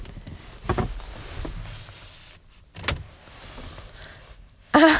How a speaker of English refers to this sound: I'm shuffling around right now because I'm I'm in my car. I went for a drive and I just pulled over kind of a scenic area and decided I would record here